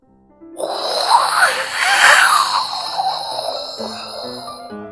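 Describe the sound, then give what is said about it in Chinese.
Wind whooshes up out of near silence and blows ever harder in a loud, steady rush with gusty swells, while soft, low musical notes step along beneath it. “风这时候越刮越大，”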